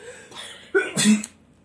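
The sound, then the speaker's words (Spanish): A single sneeze: a short breathy intake builds into a sharp, loud burst of air that quickly trails off into quiet. “Salud.”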